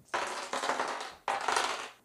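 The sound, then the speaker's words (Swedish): Two of four dice are rolled onto the middle of a hard tabletop, clattering in two quick bursts, each a rattling tumble of small clicks that trails off, fairly loud with no talking. “Så vi tar våra fyra tärningar, två utav dem rullar vi och lägger dem i mitten av bordet.”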